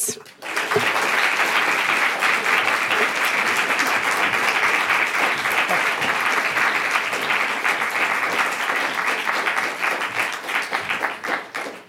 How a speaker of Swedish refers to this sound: Ge dem en varm applåd.